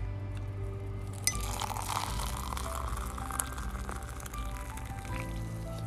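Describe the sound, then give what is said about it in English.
Coffee brewed by a small red teapot named Savannah pours steadily into a cup, a continuous liquid splash, while a spoon clinks against the cup a few times as it is stirred. No one speaks. “Thank you for whistling Dixie because baby girl, baby doll needs some coffee. This, my friends, is the sound of heaven.”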